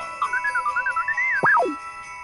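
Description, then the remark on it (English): Bright, sustained ringing tones hang in the air while a warbling, pulsing chime rises and falls, then swoops sharply downward near the end. No one speaks. “That, my silly friend, is the sound of bells.”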